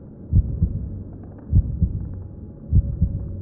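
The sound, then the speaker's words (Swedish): A slow, muffled heartbeat thumps three times, each beat a deep lub-dub pair, over a low droning hum with no voices. “Du tycker dig höra ett hjärtslag.”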